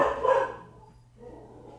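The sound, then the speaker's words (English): A dog in a dorm room lets out one loud, sharp bark at an arriving Instacart delivery person, followed after a short pause by a quieter, muffled bark or grumble; no one speaks. “Sorry, my dog is going crazy because okay. the Instacart person is here.”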